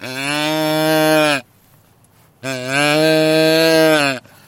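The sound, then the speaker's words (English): A deer grunt call, worked by pressing a button, sounds two long, loud, nasal bleats imitating a fawn (a young deer), each lasting over a second and separated by a short quiet gap. “that sounds like a fawn that's a baby deer looking for mommy.”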